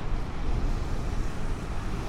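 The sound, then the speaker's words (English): Steady wind rumbles against the microphone while ocean surf washes continuously underneath on a wild, untamed beach with lava outcroppings on Niihau, a dense, unbroken roar with no voices present. “It's like a it's like this weird untamed beach with these lava outcroppings in it and the water is is this unreal, multicolored”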